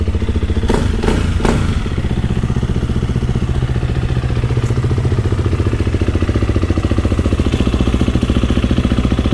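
A dirt bike engine, from a Honda XR150L and a KTM XCF-W 350 in the Pisgah Ranger District, runs loud, a steady throbbing idle with a few sharp revving blips and clattery thumps near the start, then settling into an even rumble.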